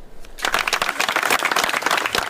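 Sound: applause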